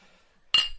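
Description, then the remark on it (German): Beer glasses clink in an after-work toast at the end of a four-day tour around Mallorca: one bright, sharp ringing strike that lingers briefly after a quiet moment, with no talking. “Prost.”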